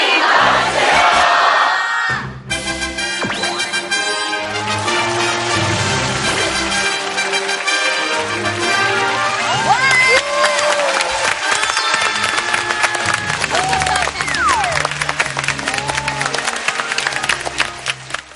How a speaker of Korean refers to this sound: 어, 제가 하나, 둘, 셋을 외치면 다 함께 선생님 나와주세요를 외쳐주시면 되겠습니다. 여러분 준비되셨나요? 네. 자, 하나, 둘, 셋! 선생님!